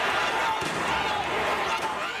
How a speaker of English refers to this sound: Those sounds are tear gas canisters being deployed at a soccer match after rival fans began fighting.